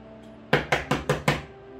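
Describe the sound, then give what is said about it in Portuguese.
Five heavy, evenly spaced knocks on a door, loud, striking in a quick steady rhythm before stopping, with no voices present. “Bem pesados na porta.”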